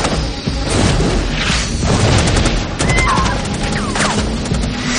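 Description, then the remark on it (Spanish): Loud, chaotic battle noise in a jungle: heavy booms of grenade explosions mixed with rapid bursts of gunfire from advancing soldiers, dense and continuous with sharp cracks clustering in quick volleys. “Las granadas continúan explosionando, mientras la doctora se tapa los oídos resguardada tras un árbol.”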